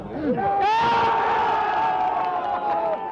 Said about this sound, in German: Mir fällt der Jubel ein, letzte Woche nach unserem 2 zu 1 Siegtreffer in der Nachspielzeit. Abklatschen, tanzen, umarmen.